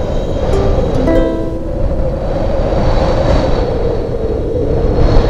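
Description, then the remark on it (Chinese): A fierce, strong wind roars steadily and loudly throughout on Xilai Mountain, a dense low rumble with brief whistling tones early on. No one speaks. “但今天西来山上刮起了可怕的大风。”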